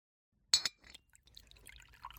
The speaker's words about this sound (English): Pour me a drink.